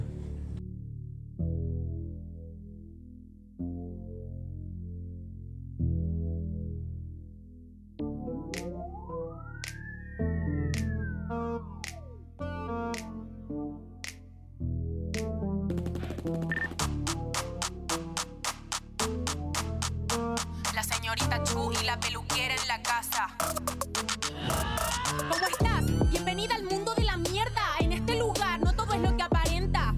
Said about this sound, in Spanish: ahora les quiero invitar a escuchar un tema musical que nos va a servir de introducción